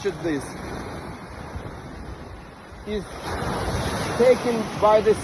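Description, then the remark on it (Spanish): Waves wash steadily onto Dolphin beach, a constant broad roar mixed with wind buffeting the microphone, while brief bits of a voice cut in toward the end. “Esa es la famosa playa Dolphin.”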